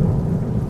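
A deep, continuous rumble of thunder rolls over steady falling rain that has suddenly begun on a dark night, loud and sustained throughout with no voices present.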